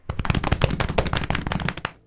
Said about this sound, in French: Roulement de tambour, s'il vous plaît.